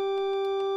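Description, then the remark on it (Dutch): A single sustained organ pipe tone from a 3-foot quint stop, sounding a fifth above the fundamental, holds one steady, bright pitch with clear overtones, heard alone and evenly loud throughout. “3 voet ook wel kwint, klinkt een kwint hoger, oftewel vijf tonen hoger dan de grondtoon.”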